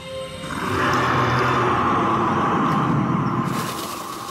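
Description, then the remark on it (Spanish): A deep, sustained roar swells in over half a second, holds loud and rumbling for about three seconds, then fades, heard alone with no talking. “¿Has oído ese rugido?”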